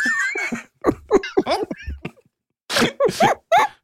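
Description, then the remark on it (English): A voice imitates a car crash: a skidding, whining vocal sweep followed by a run of sharp, noisy bursts and a short pause, then harsher crunching blasts, fairly loud. “Yeah, that wasn't an amateur car no, crash noise.”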